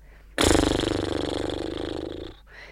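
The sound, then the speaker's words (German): A person loudly snorts like a horse as a relaxation exercise, blowing a long, rapid lip-fluttering blubber for about two seconds, with no talking over it. “Meine liebste Entspannungsübung ist Schnauben wie ein Pferd und Schütteln wie ein nasser Hund.”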